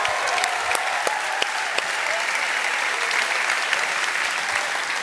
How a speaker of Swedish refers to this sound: Kan vi jubla lite grann för Jesus Nyhemsvardag?